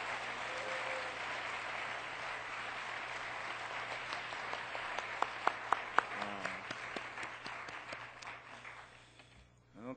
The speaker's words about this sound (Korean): 지난 거의 1년 동안 우리 비전 예배 개근한 사람들입니다. 우리 한, 한 50여 명이 되는데 오늘 두 사람이 대표로 받게 되겠습니다. 한번 큰 박수로 격려해 주시기 바랍니다.